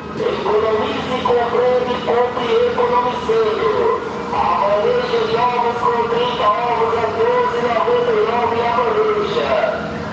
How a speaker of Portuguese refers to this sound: Eita. Porra, o carro do ovo, peraí.